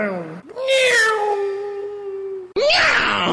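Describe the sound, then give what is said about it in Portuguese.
A loud, drawn-out cat meow sound effect holds a steady wavering pitch for about two seconds, then breaks off into a short, harsh, noisy burst. “bom, bom efeito sonoro, inclusive.”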